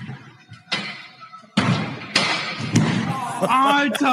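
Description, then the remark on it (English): A series of heavy thuds as a man hits his head and knocks himself out lands roughly every half second, followed by a vocal sound or cry near the end. “he hit his head, knocked himself out.”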